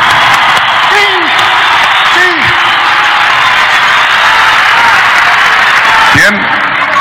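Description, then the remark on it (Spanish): A wrestling crowd applauds the wrestler Atlantis loudly and steadily for about seven seconds, dense clapping mixed with cheering, while a few rising-and-falling whoops and shouts break through the noise. “Un aplauso para Atlantis.”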